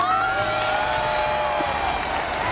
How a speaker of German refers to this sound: Und weil du es so großartig gemacht hast und weil es mir so gefällt, kriegst du nochmal einen Applaus.